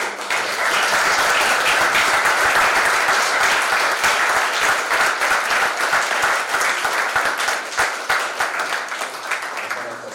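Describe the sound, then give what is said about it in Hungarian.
A crowd applauds steadily for about ten seconds, a dense, even wash of many hands clapping at full strength, thinning slightly toward the end. “Köszönöm szépen, nagy tapsot szeretnék kérni.”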